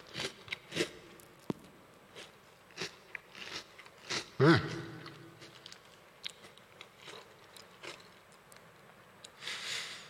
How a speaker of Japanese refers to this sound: ボリボリと食べてる音をお届けしましたけれども、えー、こちらはちみつおかきせんべいですね